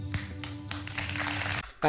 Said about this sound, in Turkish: O da öyle ama bak alkışın başlamasını hemen duyalım. Bir, bir tık geliyorum. Dikkat edin kulağınızı verin alkışa.